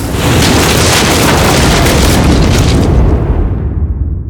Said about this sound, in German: Über der Trotte ist ein furchtbares Gewitter aufgezogen. Es hat donnert, dass Balken zittert haben. Es hat geschüttet wie aus Kübel.